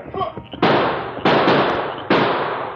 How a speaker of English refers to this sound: Dropping the bags he had taken from the safe, Luke Banner sprinted for the clump of trees as bullets spewed up the dust at his heels.